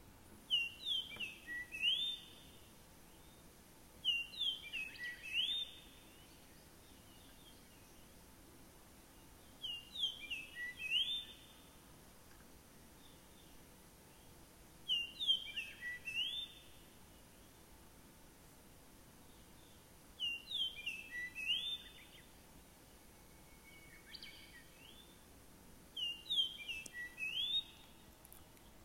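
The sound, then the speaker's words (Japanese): A Japanese grosbeak, a stocky finch with a large yellow bill, sings clear, fluting whistled phrases, repeated about every five seconds with short pauses between, against a faint hiss of background noise. “えー、これがイカールという鳥です。”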